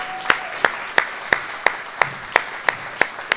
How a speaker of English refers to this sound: Ready? Stand. You're a crew leader. All right, let's give you guys a round of applause.